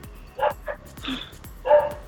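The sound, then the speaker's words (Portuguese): A dog barks four times in quick, uneven succession, short sharp yaps at moderate volume, with no talking over them. “Esse cachorro aí, hein?”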